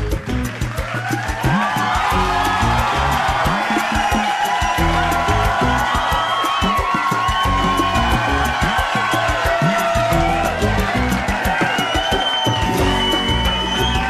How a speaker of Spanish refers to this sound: Oigan, Podemos dedicar los aplausos, por favor, a los papás, a los padres.